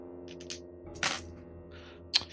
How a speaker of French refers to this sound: Vous allez, me jeter 2 dés de 6. Ok.